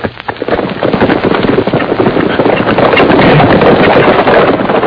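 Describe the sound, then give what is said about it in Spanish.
Several horses with riders galloping, their hooves making a dense, rapid clatter that swells slightly louder and holds steady, with no voices. “Gente de a caballo.”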